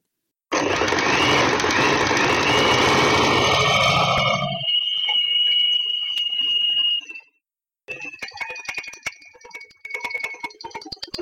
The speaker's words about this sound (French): enregistrer le son de votre machine à coudre.